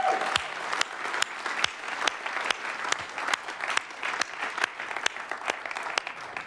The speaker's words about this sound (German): die das alles aufgebaut haben, und nicht nur das, sondern auch das, was unten in der Tiefgarage auf uns wartet und das, was wir am Freitag in Mönchengladbach erlebt haben, diesem Team sollten wir mal einen ganz fetten Applaus geben. Ihr seid Helden.